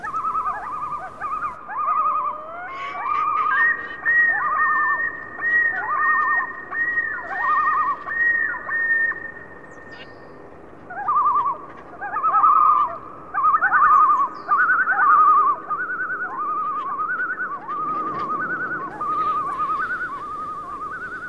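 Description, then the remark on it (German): Loud wailing calls of a common loon, the call given at the breeding site, repeated in rising and falling phrases across two long bouts separated by a short pause, carrying clearly over a quiet outdoor background. “Das charakteristische laute Gejaule, das die Vögel am Brutplatz hören lassen, ist in vielen Gegenden Nordamerikas ein typischer Bestandteil der sommerlichen Geräuschkulisse, vor allem nachts, denn die Eistaucher rufen gerne in der Nacht.”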